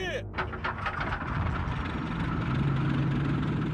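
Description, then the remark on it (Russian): Heavy Red Army tank engines start up on command for a forced march toward Prague and settle into a loud, continuous deep rumble with harsh mechanical clatter, with voices half-buried under the din. “По машинам! Заводи!”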